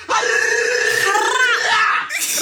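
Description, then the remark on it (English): A person lets out a loud, sustained howl lasting about two seconds, the voice wavering and bending in pitch before trailing off abruptly at the end. “Howling.”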